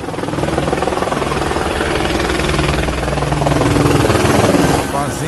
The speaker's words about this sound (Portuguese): Helicópteros por toda a cidade,